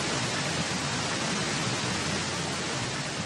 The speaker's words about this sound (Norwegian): Denne fossen, eller irriterende suselyden, er inni hodet ditt når du skal sove, lese eller gå en tur i skogen. Skader på hørselen er den nye folkesykdommen.